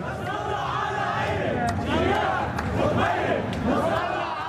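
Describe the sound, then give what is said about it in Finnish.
A large protest crowd in Beirut, Lebanon, demonstrating after the explosion, chants and shouts together in a steady, loud roar, voices rising and falling in rhythmic waves of protest chanting that continue throughout. “Räjähdyksen jälkeen mielenosoitukset ovat jatkuneet Beirutissa päivittäin.”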